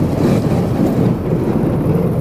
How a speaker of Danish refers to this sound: Det er faktisk sådan, at båden den skærer sig igennem et tyndt lag is.